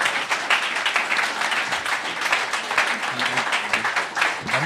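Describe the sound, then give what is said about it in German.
A crowd applauds steadily, dense overlapping hand claps forming a loud, even wash of sound that continues for several seconds, with faint voices mixed in underneath. “Vielen Dank. Applaus.”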